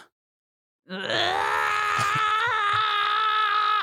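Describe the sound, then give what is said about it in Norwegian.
After a moment of silence, a single loud, deep bass scream is shouted into the microphone to drive leftover water out of a phone, holding steady and strained for about three seconds, without any words. “Kan ikke du skrike litt til mikrofonen nå, bare sånn at vi kan få eh, fjerne litt ekstra vann hvis det ligger igjen noe?”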